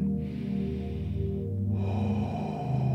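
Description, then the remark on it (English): Deep, slow meditative breathing: a long, airy inhale flowing into a heavy, drawn-out exhale, steady and fairly loud, with no talking. “So do that breathing again.”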